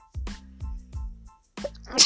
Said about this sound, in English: oh my god i am i am i man i i i'm gonna keep sneezing and i'm probably won't be able to finish this episode